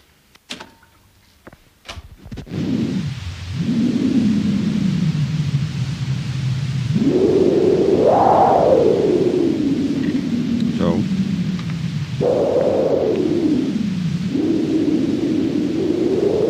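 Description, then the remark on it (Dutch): A few clicks, then steady, loud roaring storm wind with a howling tone that swells and dips in pitch several times, continuous, with no voices: an imitation, recorded on a tape, of the sounds heard on a Dutch heath during a storm. “een imitatie van geluiden wat je hoort op een Hollands heideveldje waar het stormt.”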